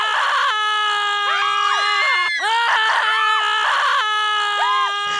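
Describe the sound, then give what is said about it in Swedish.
A voice imitates a loud, sustained scream or roar of 18 women screaming as loud as they can, strained and harmonic-rich, rising and wavering in pitch across about five seconds with a brief break midway. “I, och så är det 18 kvinnor som skriker allt vad de kan. Alltså det var så här, vrål.”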